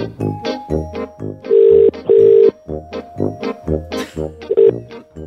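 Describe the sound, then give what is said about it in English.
An outgoing phone call to a listener rings out: a loud double ring tone buzzes twice in quick succession, surrounded by a busy patter of short electronic tones, with one more brief ring near the end. “One more call.”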